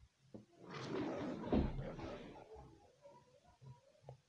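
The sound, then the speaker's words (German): A lion's roar swells into one long, rough, breathy bellow lasting about two seconds, then fades into quieter grunts and low rumbles. Nobody speaks. “Ein Löwen.”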